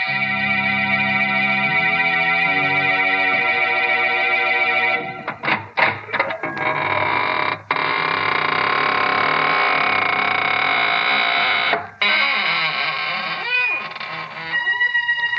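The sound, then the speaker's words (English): The squeaking door of the radio show Inner Sanctum Mysteries creaks open, a long, loud, strained, wavering squeal with rough rasping breaks that drags on for about fifteen seconds, with no voices over it. “This is your host to welcome you in through the squeaking door.”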